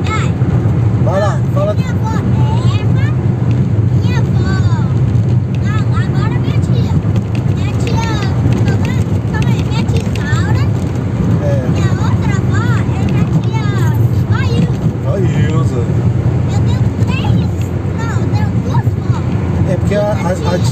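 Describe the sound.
Steady, loud low rumble of a car driving fills the whole recording, a constant road and engine drone inside the vehicle, with an adult and a child talking over it throughout.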